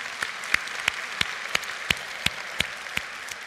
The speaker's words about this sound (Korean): 우리 하나님께 영광의 박수 올려드리기 원합니다.